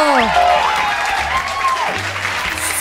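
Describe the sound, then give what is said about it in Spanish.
Loud, dense applause from a crowd, a steady wash of clapping that fills the whole moment, with a few sliding tonal sounds drifting over it. “¡Un fuerte aplauso!”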